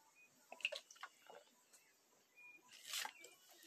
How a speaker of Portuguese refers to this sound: Tô tomando água, gente. Nossa, eu tô com um negócio que eu tenho que tomar. Vou tomar 3 litros de água por dia.